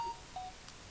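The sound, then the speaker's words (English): Two short electronic beeps from a phone, a steady higher tone followed by a brief second one, against a quiet background with no talking. “that's my phone.”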